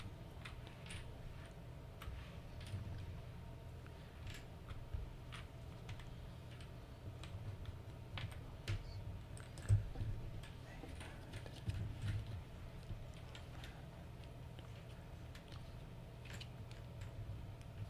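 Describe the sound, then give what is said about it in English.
Small game coins click and tap on a tabletop as they are counted, a steady run of light clicks spread irregularly over a low background hum. “We'll count the coins first.”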